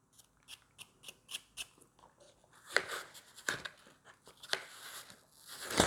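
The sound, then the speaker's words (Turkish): A knife peels an apple: a quick run of crisp, evenly spaced scraping cuts, then longer, rougher rasping strokes of the blade against the skin. Fairly quiet, with no talking. “Şu an elmayı soyuyorum.”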